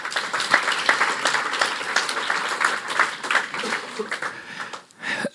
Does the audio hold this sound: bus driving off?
no